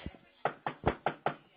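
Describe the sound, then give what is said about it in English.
Five firm knocks in a quick, even rhythm, each a sharp dull rap that dies away fast, preceded by a brief low muffled thump; the knocks are given as a 'yes' answer to an emergency call operator who is sending an ambulance. “Can you do that? Knock for yes.”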